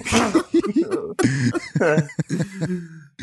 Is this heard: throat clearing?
yes